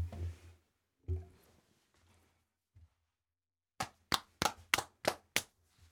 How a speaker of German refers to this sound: nein, du klatscht dir auf den Arsch. Ach, mit Warte, der Hand. Ich demonstriere.